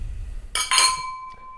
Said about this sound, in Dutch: Ja, en voor nu ja, hoeven we eigenlijk nog maar één dingetje te doen. Dat is ons glas heffen en de legendarische woorden uitspreken. Daar komt hij klinken.